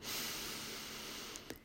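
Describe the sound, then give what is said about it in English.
A long, steady inhale drawn in through the nose during a meditation breathing exercise after chanting the bija mantra Lam, airy, holding a soft hiss for over a second before tapering off with a faint click near the end. “Lam, L A M, when you're ready, inhale.”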